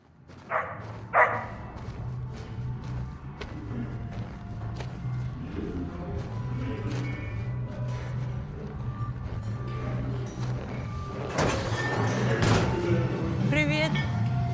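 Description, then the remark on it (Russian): A dog barks a couple of times early on, sharp, over a low steady hum with murmuring voices, and a louder burst of noise comes later. “Собака пришла сюда, и мы пришли с ней.”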